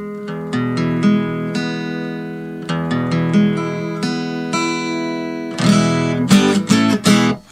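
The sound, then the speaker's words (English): A guitar is plucked and strummed over and over while its strings are retuned to a slightly different tuning for a new song, ringing chords and single notes repeating, with a brighter burst of strums near the end. “Uh, it's in a slightly different tuning, so.”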